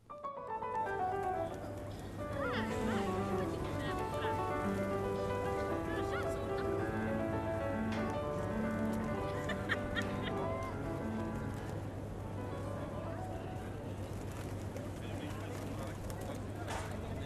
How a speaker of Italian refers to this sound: Ieri mattina sono andata in piazza Duomo, ho registrato il suono dei piccioni. Ho trovato più piccioni che persone